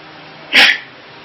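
A single sharp sneeze bursts out abruptly, short and fairly loud against a quiet background, with no talking during it.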